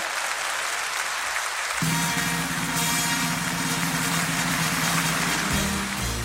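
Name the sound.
stadium crowd applauding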